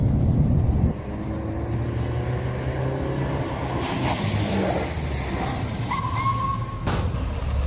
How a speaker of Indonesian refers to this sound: Setelah berhenti dan mematikan mobil